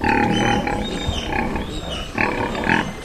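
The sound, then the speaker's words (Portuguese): Several black pigs roaming along a path grunt and snort as they flee from a passing jeep, a loud, continuous jumble of rough grunts with brief squeals rising over it, with no one talking. “Quietos ao longe, fogem à passagem do jipe os porcos pretos que se passeiam pela vereda.”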